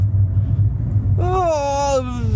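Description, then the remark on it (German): A steady, deep rumble fills a car interior with the windows closed, droning evenly throughout; partway through, a voice begins over it with a drawn-out, sliding tone. “Außerdem muss ich jetzt sowieso abbrechen, weil ich habe nämlich die Fenster zu, damit ihr mich besser verstehen könnt. Das ist aber nicht gut, weil mittlerweile hier im Auto”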